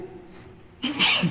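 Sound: sneeze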